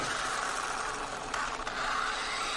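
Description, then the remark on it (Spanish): A yellow remote-controlled toy car, played with by a child on the road in front of Hank's house in Breaking Bad and passing his garage; its small electric motor whines steadily, a continuous buzzy drone with a brief flutter midway and no voices. “De día, en la calzada frente a la casa de Hank, un niño juega con un coche teledirigido amarillo.”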